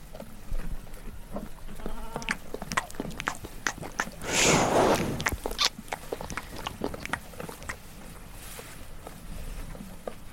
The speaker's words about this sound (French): Il y avait des agneaux aussi.